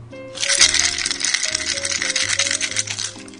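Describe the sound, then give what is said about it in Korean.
Small xylitol mint candies rattle inside a container, a steady, dense clatter of hard pieces shaken back and forth, with tinny high rattling over a faint low musical tone throughout. “자 이거는 잘리톨 땡 민트입니다.”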